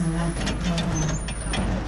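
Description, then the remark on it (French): A garbage truck's engine rumbles steadily, with brief bursts of air brake hiss cutting through the heavy, continuous idle; the truck is acting up and running very slowly. “Qu'est-ce qui se passe là Le camion, il déconne. Depuis le début, là, euh, il est très lent.”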